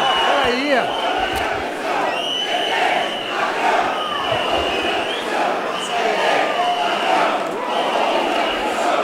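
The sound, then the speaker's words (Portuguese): A large audience in the gallery of the Brazilian parliament shouts and chants in protest during a vote on pension rules, a loud, continuous wall of overlapping voices with rising cries, sustained throughout without a pause. “Eu vou ser obrigado, infelizmente, a pedir que seja retirada a plateia.”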